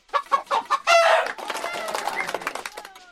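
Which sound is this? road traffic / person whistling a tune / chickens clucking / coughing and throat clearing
chickens clucking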